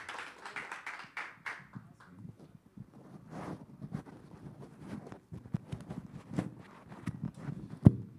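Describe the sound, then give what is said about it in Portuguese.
An audience applauds for the Lord Jesus, with dense, irregular claps from many hands running steadily for several seconds, a few sharper, louder claps standing out near the end. “Vamos dar uma salva de palmas para o Senhor, Jesus.”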